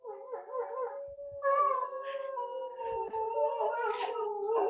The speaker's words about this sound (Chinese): 不会啊，你是两匹狼的老母。 等一下可以让他叫一下给你们听。